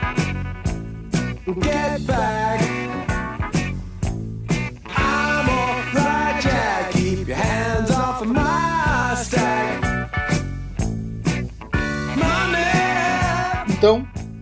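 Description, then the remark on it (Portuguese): A classic rock track plays steadily from start to finish, with a driving drum beat, layered guitars and sustained chords at a fairly full, even volume, with no talking over it. “De qualquer jeito, a gente vai ouvir um pouquinho do som maravilhoso desse clássico ao fundo hoje.”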